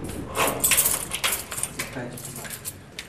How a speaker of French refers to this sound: Alors on ouvre plusieurs portes grillagées. On entend le métro. On l'entend puisque les, métros continuent de passer, mais ils ne s'arrêtent pas.